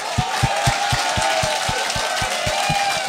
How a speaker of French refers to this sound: Mesdames et messieurs, j'aimerais ça qu'on donne bonne main d'applaudissements.